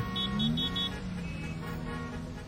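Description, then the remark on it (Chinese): A few short car horn toots sound in a traffic jam over a steady low rumble of traffic, the honks clustered in the first second before the engine noise carries on alone. “哎，又堵车了。”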